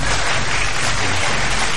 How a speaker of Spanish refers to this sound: ¿Puedes hacer acto de presencia con unos sonidos de aplausos o algo para estos chavos? ¿Sí?